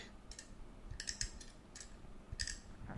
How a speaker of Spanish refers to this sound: Y el juguete, pues el juguete era muy curioso, a mí me parecía uno de los androides más curiosos. Las patitas tenían como este clic